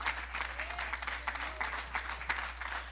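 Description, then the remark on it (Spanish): An audience applauds the Lord as King, clapping steadily, a dense, continuous patter of many hands with a few sharper claps standing out, sustained at an even level for the whole stretch. “Y entonces me, habilitó, dele fuerte el aplauso al rey.”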